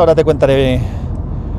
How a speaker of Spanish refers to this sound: Este es el capítulo 199 de Ya Te Digo, un capítulo que estoy grabando desde el coche, como supongo que se escuchará un poco el motor de fondo y el ruido del aire.